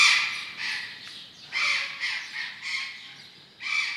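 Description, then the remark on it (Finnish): Harsh, loud squawks from blue-throated macaws and Patagonian conures kept together in the same enclosure repeat in overlapping bursts, a raucous flock calling with no talking. “samassa tilassa meillä on Patagonian arattien kanssa tuolla ylhäällä näkyy sinikurkkuaroja”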